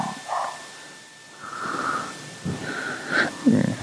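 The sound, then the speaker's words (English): Dogs snorting and sniffing in a string of short, breathy, wheezy bursts over about four seconds, ending with a louder rough snort; no one speaks. “Jeez, these dogs.”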